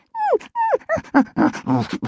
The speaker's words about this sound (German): ich muss dir was sagen, bellte der kleine weiße Hund.